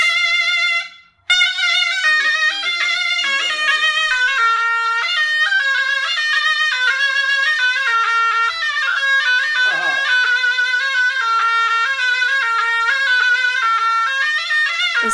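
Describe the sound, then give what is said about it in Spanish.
A surna, a double-reed wind instrument of the oboe family used in Arabic music, plays a loud, piercing, nasal melody, sustained and ornamented with wavering notes, continuing without pause after a brief break near the start. “Eh, también está algo que se llama surna, que suena así, miren.”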